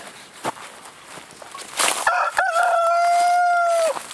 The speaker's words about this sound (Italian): qui c'è abbiamo un gallo Riot incazzato con tutti